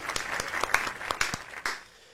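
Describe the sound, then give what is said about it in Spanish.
A short burst of applause on a live show as the day's topic is announced, a handful of sharp, irregular claps ringing out over a soft hiss, fading away after about two seconds with no voices. “Aplauso, fuerte el aplauso el día de hoy.”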